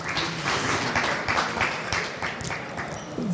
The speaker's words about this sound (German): Äh, es gibt Applaus in der Jahrhunderthalle. Ähm, vielen Dank. Tosend.